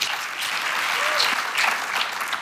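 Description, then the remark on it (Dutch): Steady, dense applause from an audience welcoming writer Raoul de Jong, author of this year's Boekenweek essay, before he reads from his work Jaguarman. A continuous wash of many hands clapping at even loudness throughout, with no voices standing out. “Graag een warm applaus voor Raoul de Jong.”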